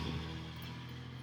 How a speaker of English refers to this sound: Truck going by.